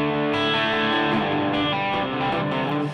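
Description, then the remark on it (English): An electric guitar noodles through heavy effects, with thick, sustained distorted notes shifting loosely and unhurriedly. It plays steadily and fairly loud for the whole stretch, with no voices over it. “I mean, I'll just noodle all day, so better yeah, stop that.”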